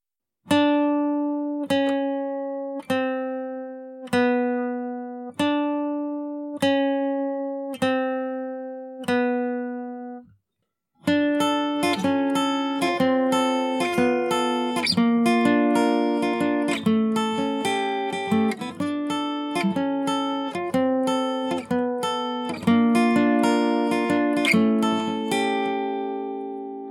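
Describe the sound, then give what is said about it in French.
A clean guitar plays a slow descending chromatic line of evenly spaced plucked notes ending on a seventh chord, then breaks into a busier, fuller passage of ringing chords, with no voices. “Du côté de la guitare, on trouve au contraire un mouvement descendant avec des chromatismes, le tout terminé par un accord septième pour donner une sensation de suspension avant de reprendre.”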